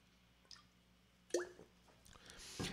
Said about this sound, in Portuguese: Só um golinho de água e a gente segue firme.